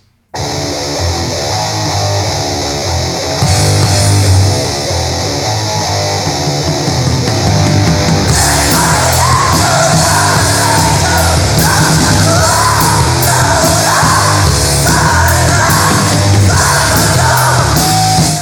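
A loud, dense 1993 black metal song with harsh distorted guitars, pounding drums and a raw screamed vocal, intensifying after a few seconds into a relentless, abrasive wall of noise.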